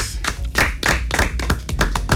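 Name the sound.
audience clapping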